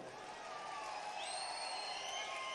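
A crowd claps steadily and densely for a couple of seconds, a continuous wash of applause with cheering and shouting voices mixed in, holding at a fairly even loudness throughout.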